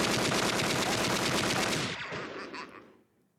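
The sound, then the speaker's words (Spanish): A loud, rapid barrage of gunfire from a movie playing on a TV, mixed with fireworks bangs, crackles continuously for a couple of seconds, then thins out and fades away. No one speaks. “La pero si no pueden salir de disparos. ah, pues es la tele. Es la tele junto con los cohetes.”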